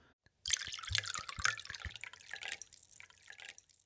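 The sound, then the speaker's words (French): Body-temperature blood poured from a stoppered pouch into a glass: a steady, splashy trickle begins abruptly and runs for about three seconds, with a few low gurgling glugs early on, and no voices. “Il entreprit d'ôter le bouchon de la poche et commença à verser le contenu dans le verre.”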